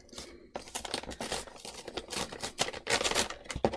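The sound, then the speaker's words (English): Paper crinkles and tears continuously as a Christmas gift is unwrapped, with dense, irregular rustling bursts for several seconds and no voices. “So can I open this? Yes, please. Ooh, very exciting.”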